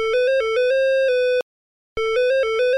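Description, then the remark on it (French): A telephone rings at the gendarmerie in Ginestas, Aude, France, on 19 April 2008, with a loud electronic tone: a quick run of melodic beeps, a brief silent pause, then the same ringing pattern starts again. No one speaks. “Comme souvent, cette enquête commence par un coup de fil à la gendarmerie de Ginestas dans l'Aude le 19 avril 2008.”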